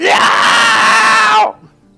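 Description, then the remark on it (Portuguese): A loud, sustained scream from inside a house bursts out abruptly and holds at full intensity for about a second and a half before cutting off sharply into near silence. “Quando vocês lá fora, vocês escutam um grito de repente.”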